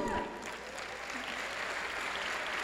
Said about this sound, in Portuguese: Oi, que palmas tão frágeis, amado. Isso é para o Senhor.